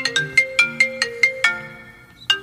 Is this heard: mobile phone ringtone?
yes